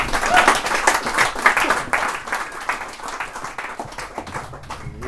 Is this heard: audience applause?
yes